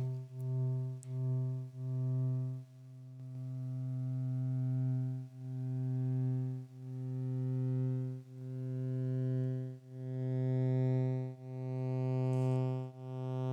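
A steady, buzzy modular synthesizer drone with strong harmonics, its envelope's trigger output patched back into its input, pulsing in repeated swells that retrigger themselves about every second or so, looping on continuously with no one speaking.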